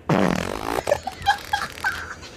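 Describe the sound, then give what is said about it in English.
A queef: a loud, buzzy, sputtering burst of air pushed out of the vagina after air was drawn in, lasting under a second, then a few short faint squeaky chirps. “Check out this streamer right here queefs”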